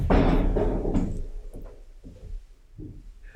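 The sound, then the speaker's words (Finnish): A cabin door is blown violently open by the wind with a loud, heavy bang, followed by a few softer knocks and rattling thuds as it settles. No voices. “Ah, hyvät kuulijat, juuri äh, mökin ovi lennähti väkivaltaisesti auki tuulen voimasta.”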